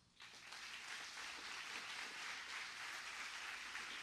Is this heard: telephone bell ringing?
no